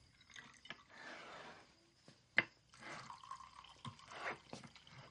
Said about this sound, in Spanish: Eh, Hank coge hielo del congelador y lo echa en los vasos. Está serio y decaído. Abre la botella y sirve un vaso para Walt y otro para él.